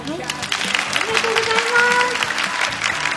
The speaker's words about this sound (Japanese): それ全て皆さんが来てくれるからできることなんで、えどれぐらいまだ残ってくれるか拍手を聞かせてください。